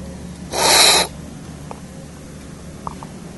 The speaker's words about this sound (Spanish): pasamos al siguiente paso, que es sabor. Entonces vamos a tomar un poco de café de cada una de las muestras y hacemos un sorbo.